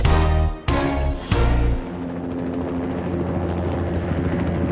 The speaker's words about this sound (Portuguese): Viajamos de helicóptero até à beira, em Moçambique